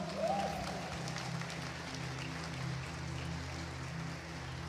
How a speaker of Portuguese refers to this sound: Aplaude ao Senhor, glorifica ao Senhor.